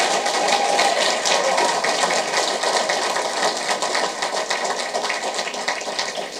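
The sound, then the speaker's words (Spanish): Loud, sustained applause from a crowd, given for Christ Jesus, a dense wash of clapping that holds steady throughout and eases off only slightly toward the end, with no voices heard over it. “Denle el aplauso fuerte, hermano, porque Él lo merece.”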